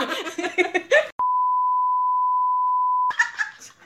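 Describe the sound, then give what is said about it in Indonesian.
A single loud, steady censor beep holds for about two seconds, covering a name and abruptly cutting off a person's speech; the talking resumes right after it ends. “iya dia memang kalau suara potong potong potong nama”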